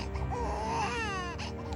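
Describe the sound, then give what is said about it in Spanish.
A newborn baby boy, weak and pale, cries in a single thin, wavering wail that rises and falls, fairly loud, with no talking. “al tiempo que la costurera daba a luz a su hijo, un niño débil y pálido.”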